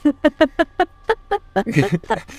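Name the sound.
chicken clucking sound effect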